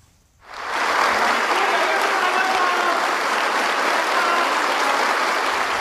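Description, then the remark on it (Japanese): Steady applause from Suga and staff at the Prime Minister's Official Residence entrance as Shinzo Abe leaves, raising his hand in response; it begins after a brief quiet moment and continues at an even, full level for several seconds, a dense patter of many hands clapping together. “安倍氏は午後エントランスで職員から花束を受け取り菅氏や職員の拍手に手を挙げて応じながら総理官邸を後にしました”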